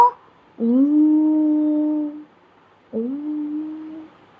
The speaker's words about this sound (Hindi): अंधेरा होते ही पेड़ की कोटर में से एक उल्लू की आवाज आई उल्लू तो रात को ही निकलता है उल्लू गाना गाने लगा